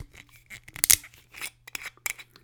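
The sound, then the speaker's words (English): A metal screw cap being twisted off a spirit bottle: a series of short scraping, crackling bursts with a sharper, louder click-snap in the middle as the seal breaks, then lighter scrapes. “Let's go ahead and open the bottle. It's got a metal screw cap.”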